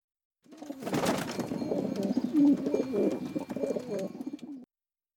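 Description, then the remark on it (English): A pigeon coos in a steady, throaty burble of repeated low warbling notes lasting several seconds, with a brief rustle near the start and no one speaking. “But no, had to miracle another pigeon to carry your bollocks.”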